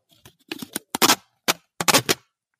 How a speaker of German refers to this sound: abreißen wie so ein Kassenbon.